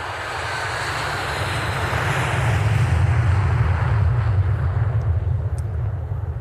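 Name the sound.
airplane engine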